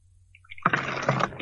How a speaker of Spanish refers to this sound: ¿Ya estás bebiendo agua